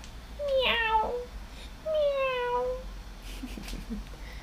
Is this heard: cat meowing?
yes